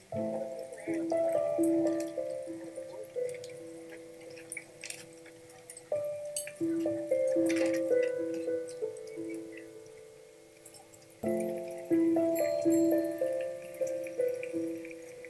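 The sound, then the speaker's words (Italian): Soft, melancholy soundtrack music from the trailer of the Golden Lion-winning film Nomadland: a gentle melody of clear, ringing notes that steps through a repeating phrase, pausing and starting over twice, with no voices over it. “Questo era il trailer del film vincitore, eh, avete sentito eh, la colonna sonora che in gran parte è eh, fatto utilizzando il, la, le musiche di”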